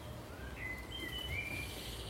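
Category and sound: bird, blackbird singing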